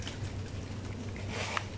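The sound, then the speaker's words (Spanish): Heavy rain pours down at a cenote in a steady, dense wash of hiss and patter, with no voices, just the constant rush of falling water. “Llueve, llueve, llueve mucho”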